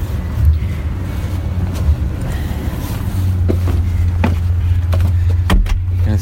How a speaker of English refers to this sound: All right. Just putting my shoes on and walking out the door here.